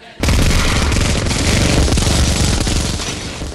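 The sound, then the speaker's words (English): Two heavy Nerf Gatling toy guns loaded with bratwurst unleash a rapid, sustained spray of mini brats down at a crowd, a dense rattling barrage that kicks in abruptly and stays loud and continuous for several seconds with no voices. “He held his heavy Nerf guns at his waist on either side and aimed them down at the crowd.”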